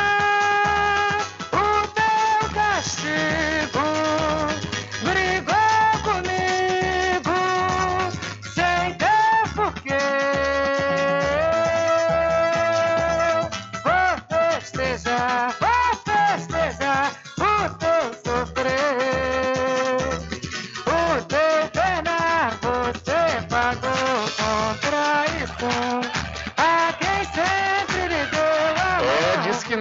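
A song plays steadily and fairly loud for the whole stretch, its sound slightly muffled and narrow like music coming from a record player.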